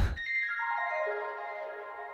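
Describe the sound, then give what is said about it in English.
Bright, ringing chime-like tones cascade and overlap, sustained by heavy reverb and echoing delay so the notes blur into a shimmering wash that slowly fades. No voices are present. “Because it's that reverb and delay. It sounds like a load of chimes.”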